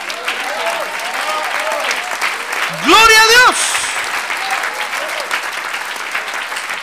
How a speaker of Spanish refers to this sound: A ver, póngase de pie y démosle un aplauso al Señor. Gloria a Dios. Démosle un aplauso al Señor.